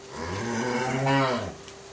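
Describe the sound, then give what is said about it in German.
A single drawn-out cow moo, low and resonant, rising slightly in pitch before fading. It stands alone with no talking. “Egal ob Frischmilch oder Haarmilch, egal ob fettarm oder Vollmilch, am Anfang dieses Weges steht immer eine Kuh.”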